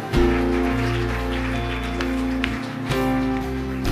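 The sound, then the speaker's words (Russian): An audience applauds steadily for about four seconds, a dense, even patter of clapping layered over sustained, droning musical chords. “давайте еще дадим аплодисменты.”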